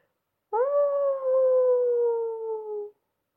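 A single long, mournful wolf howl rises sharply, then holds a steady tone that slowly drifts lower for over two seconds before cutting off, loud with no other sounds.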